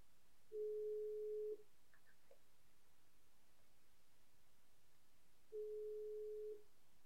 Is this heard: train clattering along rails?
no